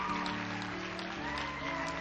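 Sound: church audience clapping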